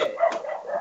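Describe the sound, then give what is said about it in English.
A dog barks, a short yappy burst with a quick sharp accent in the middle, then a brief whiny trailing tone. No one speaks. “Sorry, that's my dog.”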